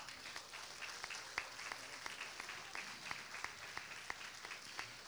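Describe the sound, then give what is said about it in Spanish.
A church audience applauds steadily for several seconds to welcome a visiting pastor, many hands clapping in a dense, even patter with a few sharper claps standing out, fairly quiet. “Un aplauso, por favor.”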